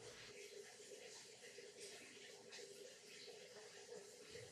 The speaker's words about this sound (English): Sounds like a shower.